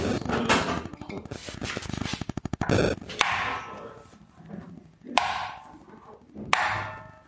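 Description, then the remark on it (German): Sharp hammer tapping strikes, a quick clattering burst followed by three separate knocks spaced a second or two apart, each ringing briefly before fading into a quiet, rustling background. “Wer keinen Hammer hat, kann auch einen Schlüssel nehmen.”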